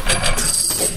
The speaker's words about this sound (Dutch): dat is een trillend muntstuk, want Albert staat daarop